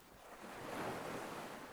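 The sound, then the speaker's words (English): Small waves of a calm sea glide slowly over a flat beach, a broad hiss of water swelling and easing over a couple of seconds with a faint breeze beneath, calm and unhurried with no voices. “Small waves glide slowly over the flat beach.”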